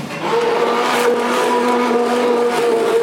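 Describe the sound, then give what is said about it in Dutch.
A steady, loud motor whir of an immersion blender moving through a large pot of tomato and onion soup, holding a constant pitch for a few seconds with no voices. “De staafmixer gaat gewoon door die grote pan heen, en weer.”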